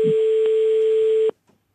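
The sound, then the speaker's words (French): A telephone ringing tone on an outgoing call to a truck driver who is out on the road: one steady, mid-pitched electronic tone holds for just over a second, then cuts off, leaving silence and a faint click. “Ça sonne.”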